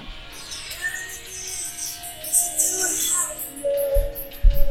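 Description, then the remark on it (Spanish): A song from the Top Gun soundtrack plays tinnily through a small cell phone speaker, thin and somewhat distorted with sustained melodic tones, steady at moderate volume, with a couple of soft thumps near the end. “Se escucha medio feo porque lo estamos tomando desde el celular, que discúlpenos.”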